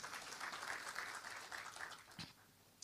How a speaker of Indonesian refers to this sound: Kasih tepuk tangan dulu buat Tuhan kita.